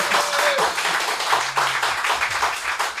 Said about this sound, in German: Aber man muss sagen, ihr klatscht wie tausend.